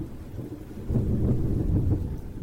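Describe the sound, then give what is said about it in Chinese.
A deep, low rumble of thunder swells after the first second and rolls on over a steady hiss of rain, with no voices present. “只看见乌云密布的天空，以及滴答滴答的下雨声。不久，一阵雷声震惊了蚂蚁们。”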